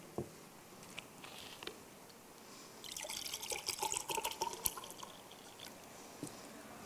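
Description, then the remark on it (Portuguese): Water is poured into a glass for a few seconds, a splashy, bright trickle with small drips, moderately loud, preceded and followed by quiet background tone. “Você sabe que é um copo d'água primeiro porque você está olhando, é um líquido transparente porque você viu o que eu estava colocando dentro.”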